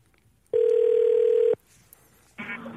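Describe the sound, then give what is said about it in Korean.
A telephone ringback tone sounds while a radio show connects a listener's call: one steady, mid-pitched burst lasting about a second, a brief pause, then the next ring starting. No one speaks. “전화 연결 가네요. 잠시만요.”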